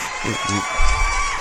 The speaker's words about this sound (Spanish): Reciban con un fuerte aplauso a Faranduleo Falso.